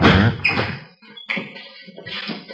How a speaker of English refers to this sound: Here, I'll get the door.